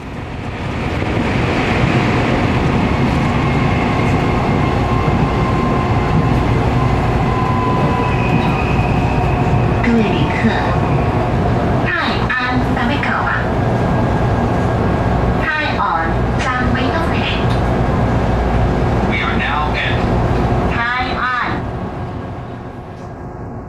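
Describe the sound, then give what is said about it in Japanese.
A loud, steady roar of train wheels on rails on a line in Taichung, central Taiwan, with clusters of rhythmic metallic clacks in the second half as the train rushes into a tunnel. “突然クジラに飲み込まれてしまったような感覚になりました車輪とレールが刻む息の合ったリズムを聞きながら列車はスーッとトンネルに入っていきます”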